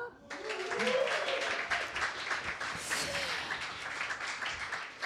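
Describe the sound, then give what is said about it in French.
A sustained burst of applause begins abruptly and carries on steadily for about five seconds, a dense crackle of many hands with some voices audible underneath. “main d'applaudissement.”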